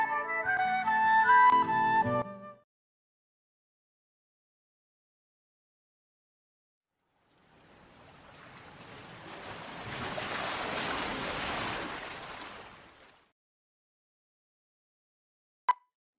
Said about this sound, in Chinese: 一阵哗哗的声音传到了毛毛虫的耳朵。毛毛虫一看，原来一条小河挡住了它的去路。